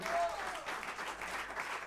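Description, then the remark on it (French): An audience loudly applauds a band member who wrote the piece. The clapping is dense and steady, a bright noisy wash of many hands, with a faint whistle-like tone briefly rising at the start. “ici présent, que vous pouvez applaudir très fort, a écrit ce morceau pour Manu Dibango.”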